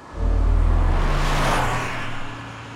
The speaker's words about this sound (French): Une voiture roule à vive allure, passe devant Notre-Dame de Paris, la conciergerie, continue jusqu'au Pont Neuf, fait le tour et s'arrête quai des Orfèvres, au numéro 36.